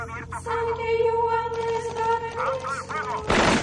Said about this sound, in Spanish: La policía acribilla la casa. Dentro, muebles y objetos caen al suelo.